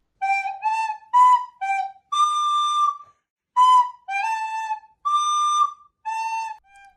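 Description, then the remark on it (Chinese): A flute played alone by a boy just over nine years old, a simple melody: short notes and longer held tones in a bright, mid-to-high register, with a brief pause midway, closing on a soft short note. “我很荣幸的偷偷的拿到了他的作品，这是他吹奏的笛子乐曲。”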